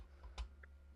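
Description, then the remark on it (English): A single sharp computer mouse click, made clicking on a link in a Zoom chat, followed by a faint, softer tick a moment later. No one speaks. “See, I messed it all up by clicking on it.”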